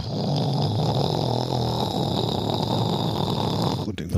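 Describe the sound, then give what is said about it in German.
A voice imitates a continuous grinding scrape of a dented bumper dragging along the road from a white Polo Fox car while driving, held steadily for about four seconds and fairly loud, with no words spoken. “Ah, schleifte was.”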